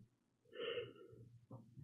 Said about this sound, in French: Putain, j'ai encore baillé du coup, je vais encore pleurer. Regarde-moi ses yeux, frère. Je deviens un zombie quand je baille, c'est terrible. Enfin, quand je baille et que je suis fatigué.